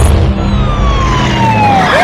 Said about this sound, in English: I hate it when they put sirens in commercials.